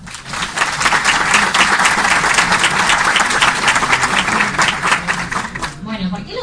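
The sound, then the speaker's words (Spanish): An audience applauds the invited guests steadily for about six seconds on a rainy day, a dense, even wash of many hands clapping that thins out at the end as a voice starts speaking. “Le damos un aplauso a los invitados.”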